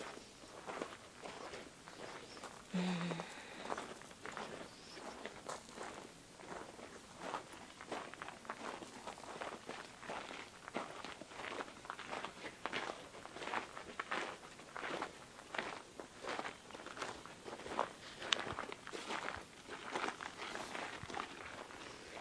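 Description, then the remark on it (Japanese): Steady footsteps walking at an even pace on a loop around a shrine for over twenty seconds, each step a soft crunching tap, with no talking. “後ろからもしっかりと眺めることができますぐるっとせっかくなんで一周してみましょうか小さい祠がいくつかありますね右側に並んでおります”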